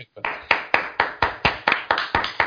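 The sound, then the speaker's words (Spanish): Steady, rhythmic hand clapping, loud, with about ten sharp claps in quick even succession, like an audience clapping in time to welcome a first guest. No one speaks over it. “Un aplauso.”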